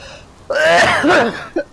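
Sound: coughing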